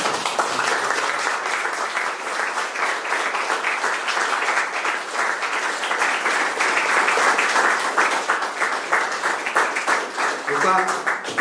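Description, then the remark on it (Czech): Sustained audience applause for the panelists of a discussion, a dense, steady patter of many hands clapping at an even loudness for about eleven seconds, with no talking over it. “tak, a, eh, milí přátelé, já vám hrozně, hrozně moc děkuji našim panelistům, prosím o potlesk pro ně.”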